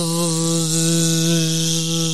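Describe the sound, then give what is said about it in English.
A voice imitates an electric sander sanding wooden furniture, making a steady, loud, continuous buzzing drone with a raspy edge that holds for about two seconds without a break. “She'd be out sanding furniture and stuff at like 1 a.m., 2 a.m., 3 a.m., just like sanding furniture, you know, wooden furniture, just bzzz, and it's just like going across the top.”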